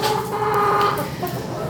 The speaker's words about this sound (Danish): Ja, det er høns, der går herinde. Og det er primært øh, øh fordøjelsesforsøg at, at hønsene egentlig bliver brugt til.